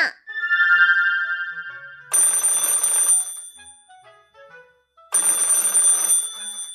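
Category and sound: signal or alarm, telephone ringing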